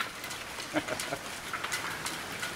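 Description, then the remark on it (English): A heavy hailstorm downpour in Florida drums on a roof, a dense, steady wash of hiss with scattered sharper clicks and taps from individual hailstones landing, the hail accumulating on top. “So yeah, we had big hail yesterday.”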